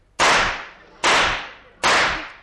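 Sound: revolver gunshot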